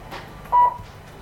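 A single short, clear electronic beep from a talking scale as it weighs, sounding once over a quiet hiss with no talking.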